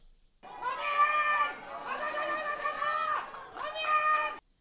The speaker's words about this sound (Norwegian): Så med unntak av to gale damer bak oss som skrek, og to guttunger som prøvde å lage litt stemning på stadion, Og enda litt mer skriking fra disse to damene.